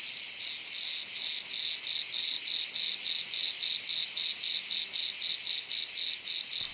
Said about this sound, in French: Pendant que les mouches rouspètent, les cigales se grattent les pattes en signe de colère. Cela fait un bruit atroce.